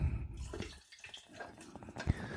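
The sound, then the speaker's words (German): Hot frying fat is poured off a pan of fried meat being made into a sandwich, with a thin, trickling liquid splash and faint sizzle, steady for a couple of seconds with a brief clatter near the end. “So, und jetzt gieße, gieße ich das Bratfett so ein bisschen weg.”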